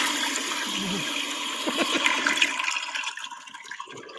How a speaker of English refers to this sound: Mm, who doesn't love the sound of toilet in your ears?